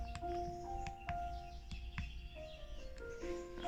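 Soft, sustained ambient background music for meditation with short bird chirps scattered over it every half second or so, the whole mix quiet and steady, with no one speaking.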